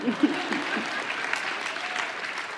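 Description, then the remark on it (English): An audience claps steadily, a dense wash of many hands applauding at moderate volume throughout, with a brief murmur of voices at the very start. “come on, you've got to clap or not clap.”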